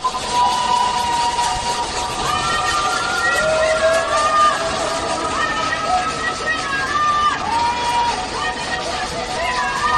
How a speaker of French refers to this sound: À Shanghai, on entend des habitants qui tapent sur des casseroles pour crier leur colère et leur désespoir.